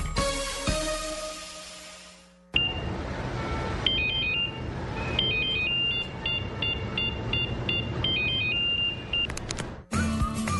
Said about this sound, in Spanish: pensaste que sonaba tu celular, es momento de cambiarte a un smartphone.